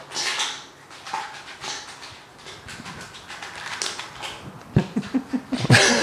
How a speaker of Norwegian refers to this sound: Nå skal dere i hvert fall få høre lyden av skjell som går i gryta.